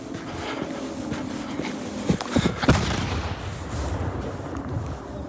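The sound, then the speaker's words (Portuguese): A few sharp bangs like gunfire and explosions crack out over a steady rumbling background noise, clustered together near the middle with no voices, during fighting between Russian and Ukrainian forces near the Zaporizhzhia nuclear power plant in Ukraine. “Explosões próximas à usina nuclear de Zaporizhzhia foram vistos hoje.”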